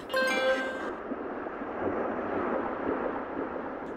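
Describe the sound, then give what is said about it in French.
A steady, rushing wash of surf rolling and breaking on shore, full and continuous, with a brief bright tone at the start fading into the constant roar of water. “Vous l'entendez Le roulement des vagues, le bruit du ressac”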